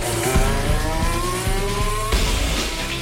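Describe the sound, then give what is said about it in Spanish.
A high-revving Formula 1 engine screams as Fernando Alonso drives his new team's 2022 car at Jerez in private Pirelli tyre tests, its pitch climbing steadily before a sharp gear change drops it and it begins rising again. Loud and continuous, with no voices. “Fernando Alonso ha rodado en Jerez, lo ha hecho con su nueva escudería, pero no en su nuevo coche. Es el monoplaza del año pasado y es la segunda vez que se sube a él.”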